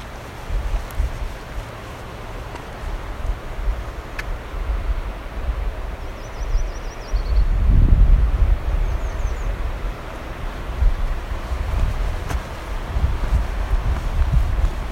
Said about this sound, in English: Okay, so that last note had a downward inflection. It sounds different than what I'm used to for American Red Start.